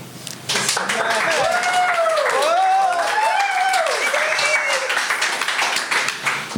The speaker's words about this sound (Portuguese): Entretanto, já se instalou no, no, na posição de poder eh, o nosso terceiro convidado de hoje. Também quer palmas.